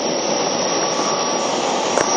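A steady, unbroken roar of a Keio 5000 series electric train running between Motoyawata and Hashimoto, broad and fairly loud, holding an even level throughout with no voices.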